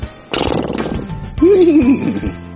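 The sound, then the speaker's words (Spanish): A person's voice mimics a donkey's bray, loud: a harsh, breathy burst followed by a wavering, see-sawing hee-haw that rises and falls for about a second. “Después de haberlo curado, subió a este hombre en su propio burro y lo llevó hasta un alojamiento donde cuidó de él.”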